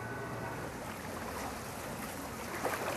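Steady splashing and sloshing of water in the swimming hall at Furuset as a woman swims in a burkini that glides through the water, with a slightly hollow, echoing wash and a brief burst of louder splashes near the end.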